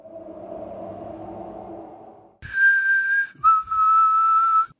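A haunting whistled tune, a throwback to Negan's old whistle: two long, clear notes, the second stepping lower, ringing out loud after a few seconds of low, droning tones.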